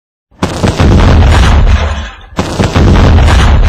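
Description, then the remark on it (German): A deep, roaring underground firedamp explosion in a mine, flammable mine gas ignited by an open lamp flame, bursts in loud, rumbles on, briefly dips, then a second heavy blast erupts and keeps thundering. No one speaks. “Alle diese Lampen stellten ein Sicherheitsproblem dar denn die offene Flamme konnte das brennbare Grubengas entzünden und die gefürchtete Schlagwerte-Explosion auslösen.”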